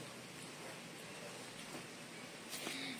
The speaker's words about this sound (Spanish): Está lloviendo.